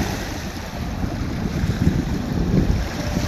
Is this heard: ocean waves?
yes